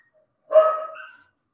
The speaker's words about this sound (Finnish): Sä, sä et kuule koiria mun ruudusta, okei? Okay? Mä kuulen ton kaiken.